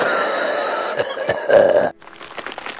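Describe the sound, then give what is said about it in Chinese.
An old man coughing, a few rough, harsh bursts over a dense, steady noise bed, after which the sound abruptly drops to a quieter, thinner murmur. “老人在咳嗽”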